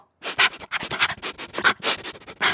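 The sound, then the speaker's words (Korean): Rapid, breathy sniffing straight into a microphone, a string of short noisy sniffs in quick irregular bursts with no talking, as someone smells manju (sweet buns) that someone bought, on subway Line 2. “아, 마이크에 대고 혼자 이렇게 킁킁대니까 되게 웃기네.”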